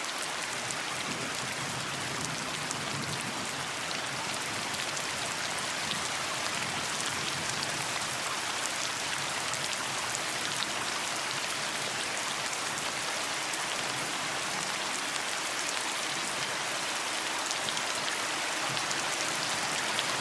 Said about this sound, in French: C'est que ce qui était le plus beau à l'oreille et le plus sensible, le son le plus sensible, c'était le son de la pluie. Je voulais aller enregistrer la pluie sur les étangs